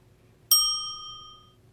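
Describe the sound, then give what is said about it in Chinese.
A single bright ding, used as a cue in a children's English lesson to say a line, rings out after a brief silence, its clear metallic partials sustaining and slowly fading over about a second. No voices are present. “听到叮声后，就可以说出奶奶的台词哦。”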